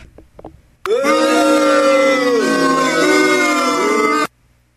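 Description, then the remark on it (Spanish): A booing sound effect: a loud, sustained chorus of low, wavering voices that starts abruptly, holds for about three and a half seconds, then cuts off suddenly. No one speaks over it. “El abucheo merecido, por favor.”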